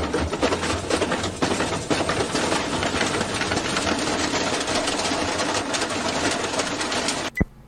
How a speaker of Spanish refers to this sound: Se rompía el, el lavarropas.